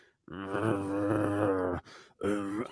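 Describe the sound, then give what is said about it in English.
A voice imitates a death metal growl: one long, low, rough sustained groan lasting over a second, then a shorter guttural burst after a brief pause, loud. “it's totally like it's growling it's death metal so yeah.”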